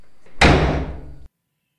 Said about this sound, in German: Kurz bevor ich die schwere Tür ins Schloss fallen lasse, betätige ich den Lichtschalter vor der Tür und begebe mich wieder in die allumfassende, gütige Dunkelheit.